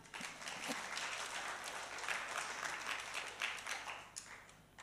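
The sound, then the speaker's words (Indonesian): An audience breaks into sustained applause for God, a dense crackle of many hands clapping steadily for several seconds at a fairly even level, with no one speaking over it. “Kenapa enggak tepuk tangan bagi Tuhan?”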